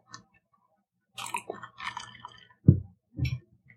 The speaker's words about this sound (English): Let me wet my whistle.